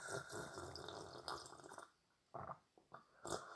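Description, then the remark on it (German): Wet slurping and gulping of water as someone tries to drink a whole liter from a bottle in one go: a sustained noisy stretch of drinking, then a pause broken by several short, sharp sips and swallows. No one speaks. “Wer auch nichts Besseres zu tun hat, als nur so authentisch zu schlürfen.”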